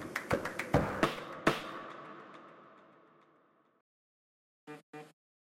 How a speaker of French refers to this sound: Ce petit bruit que tu viens d'entendre, c'est mon agenda qui m'envoie une notification pour me dire que c'est l'heure de me mettre devant mon clavier et d'écrire un nouvel épisode de podcast. En fait, ce rappel, je l'ai tous les jours